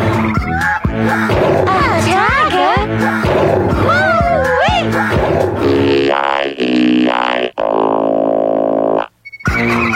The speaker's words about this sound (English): A big black tiger.